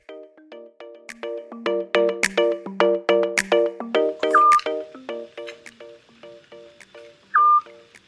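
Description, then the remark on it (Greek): Two short, clear whistled notes of a Eurasian scops owl, a resident nocturnal raptor of Athens, Greece, ring out about three seconds apart over a busy run of rapid plucked, clicking tones that fill the background. “Γιόνις. Μόνιμος κάτοικος και το πιο κοινό νικτόβιο αρπακτικό της Αθήνας. Η φωνή του ακούγεται σε πολλά πάρκα της πόλης και γενικά έχει προσαρμοστεί πολύ καλά.”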